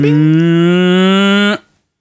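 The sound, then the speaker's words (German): A voice imitates an electric car's start-up sound: one sustained, buzzy vocal tone about a second and a half long, slowly rising in pitch and loudness, then cutting off abruptly. “So Hochfahrsound, weißt du, so ein, so ein Charge-Up, weißt du, wenn das Auto startet, macht es dann vielleicht erstmal so”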